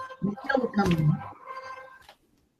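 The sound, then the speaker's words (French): A mobile phone ringtone plays a short electronic melody of steady tones for about two seconds, partly overlapped by a voice talking, then cuts off abruptly. “Excuse-moi, c'est ma facette portable qui s'est mise en route, mais je vais l'éteindre.”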